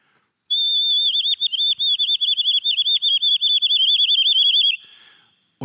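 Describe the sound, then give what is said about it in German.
A whistle held in water is blown: a shrill, continuous whistle sounds alone for about four seconds, its pitch wobbling and warbling rapidly as it bubbles through the water, then it cuts off abruptly. “Ich halte die Pfeife hier einfach ins Wasser.”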